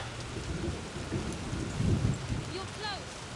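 A steady downpour of heavy rain hisses throughout, with a low rolling rumble of thunder swelling near the middle and a few faint tonal sounds drifting in toward the end.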